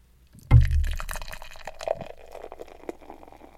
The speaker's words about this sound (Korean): 근데 보통 그럴 때도 맥주를 캔을 따서 따르는 시간이 있으니까 그거를 그냥 이렇게 다 콸콸콸 듣고 있긴 그런 것 같아서 항상 줄여서 녹음을 지금까지는 했었거든요. 근데 오늘은 실시간으로 리얼타임으로 맥주를 따라 보도록 하겠습니다. 어, 소리 왜 이렇게 커? 소리가 너무 커서 놀라셨겠는데?